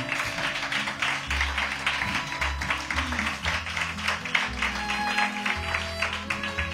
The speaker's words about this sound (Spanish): Y como hace mucho que la gente del Café La Palma no te aplaude, pues este es el aplauso para el 24 más 1.